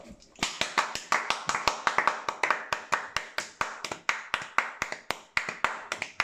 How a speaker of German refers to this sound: Und äh, auch mal einen Applaus für die Steuerberater.